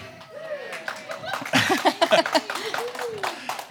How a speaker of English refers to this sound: Thank you guys. More of you clapped this sermon, this service than last service. That's good. Like you don't have to clap. Save your applause till later though, for sure.